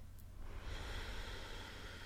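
A long, deep breath pushed out through the mouth during a belly-breathing exercise, a steady airy whoosh that starts after a brief pause and holds for over a second, fairly soft, with no talking.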